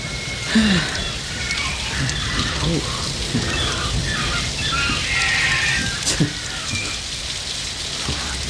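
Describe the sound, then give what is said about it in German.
Heavy tropical rain pours down steadily in a dense, continuous hiss, heard from inside a car, drumming on surfaces, with a few louder drops and faint background voices mixed in. “Ein tropischer Regen ist zwar heftig, dauert aber meistens nicht sehr lange.”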